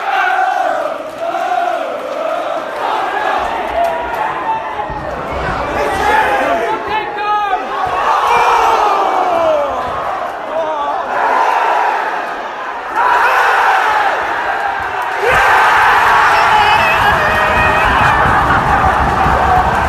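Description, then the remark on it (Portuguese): A large crowd of football supporters chants and shouts together in a loud, continuous roar of many voices, swelling in waves and growing fuller toward the end. “E essa é a título da torcida agora.”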